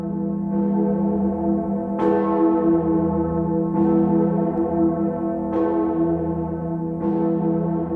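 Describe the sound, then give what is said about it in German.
The large Gloriosa church bell, on the square between the cathedral and St. Severi church, tolls steadily. Its deep, rich tone sustains and hums between strikes that come roughly every one and a half to two seconds, with no voices present. “Severi-Kirche die sechste Gloriosa. Sie läutete ein halbes Jahrtausend.”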